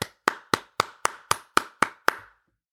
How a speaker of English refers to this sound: Everybody, everyone, everyone who's listening right now, put your hands together. Put your hands together right now for the community. Let's clap it up for each other.